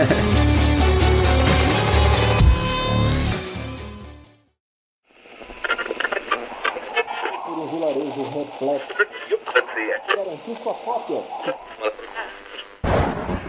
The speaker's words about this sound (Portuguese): Gente, é, tá rolando alguma interferência? Hum, amigo, acho que sim.